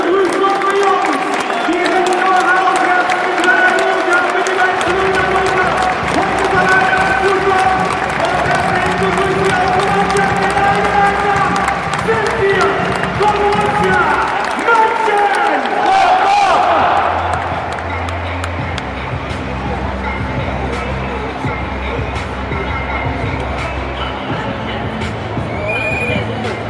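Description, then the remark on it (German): A large stadium crowd roars and cheers continuously as the home team, shown on the video wall, comes out before a match against Leipzig, led by Patrick Herrmann clapping towards the crowd and Christoph Kramer; a dense wall of voices with chanting tones, while low rumbling swells join in partway through as the noise keeps going loud throughout. “hören wir mal, wie sie begrüßt werden.”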